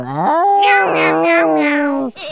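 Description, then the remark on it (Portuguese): Two cats let out a long, loud, drawn-out meow together, their wavering cries overlapping almost in unison for about two seconds before breaking off into a short final yowl. “E o pior é que quem mora em casa já sabe que gato fica assim mesmo, né?”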